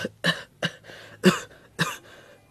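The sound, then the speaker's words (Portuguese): A boy at a hospital who cannot stop coughing has a fit of harsh, rasping coughs, five or six sharp bursts in quick, uneven succession with brief wheezy gaps between them, and no talking. “Doutor, o meu irmão não consegue parar de tossir.”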